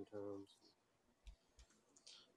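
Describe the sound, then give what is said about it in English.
A short vocal sound opens, then a few scattered clicks of a computer keyboard follow at irregular intervals, with a brighter rattle of keys near the end. “This fucking keyboard”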